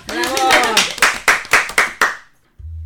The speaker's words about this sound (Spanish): Aplausos por favor.